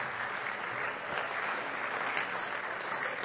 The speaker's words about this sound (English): Why don't all of our home folks give our guests a good hand clap?